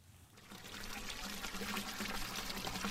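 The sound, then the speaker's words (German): Clear water splashes and trickles steadily from a small fountain beside a through road where the old town of Freudenberg begins, a continuous bubbling pour that swells in after a brief quiet start, with a faint low hum beneath. “An einer Durchgangsstraße gelegen steht ein kleiner Brunnen, aus dem klares Wasser plätschert.”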